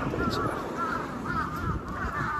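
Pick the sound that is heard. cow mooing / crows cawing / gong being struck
crows cawing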